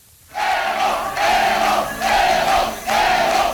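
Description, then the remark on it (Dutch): A large crowd cheers and chants in four loud surging waves with brief dips between them, a dense roar of many voices, cheering Evo Morales after his 2005 election victory. “Ja, wordt toegejuicht en roept tenslotte zelf in een speech...”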